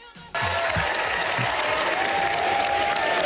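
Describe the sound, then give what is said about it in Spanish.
Supporters and more than 300 journalists burst into sustained applause for French President Emmanuel Macron as he presents his election programme at the Gabriel pavilion beside the Élysée: dense clapping that starts abruptly and stays loud and steady throughout, with faint voices mixed into the noise. “Entre aplausos le han recibido sus fieles y más de 300 periodistas.”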